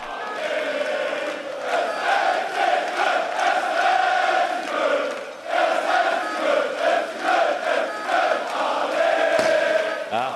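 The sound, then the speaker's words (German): A large crowd of FC football fans sings and chants together in a sustained, loud, echoing roar, the melody rising and falling continuously with a brief dip midway before swelling again. “auch da wurde gesungen, Stimmung war überragend. Aber wisst ihr was, hört einfach nochmal selbst rein.”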